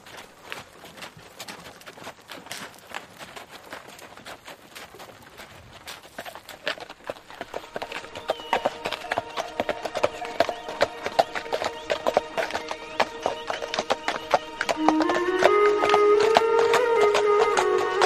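Horse hooves clip-clop at a steady, brisk pace throughout as riders set off on a journey at night, the dense hoofbeats joined midway by a sustained tonal, musical layer that grows louder toward the end.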